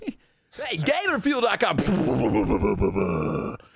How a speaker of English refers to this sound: we're back from that commercial break, which was me breathing very heavily into the microphone.